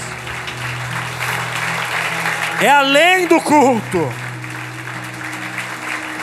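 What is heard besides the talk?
audience applause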